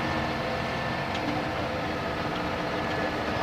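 Steady low rumble inside a moving bus, a constant engine drone and road noise with a faint tonal hum, no voices, continuous throughout.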